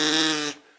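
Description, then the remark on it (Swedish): One short, bright, buzzy blast from a small reed duck call pipe, held steady for about half a second and then cut off abruptly, fairly loud with no one speaking. “det. har jag i den här lilla pipan ja.”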